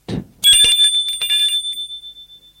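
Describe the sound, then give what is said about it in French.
A doorbell rings with a rapid series of bright, high metallic dings that blur together, then fade out over about two seconds, following a brief low thump. “Donc sonne à la porte.”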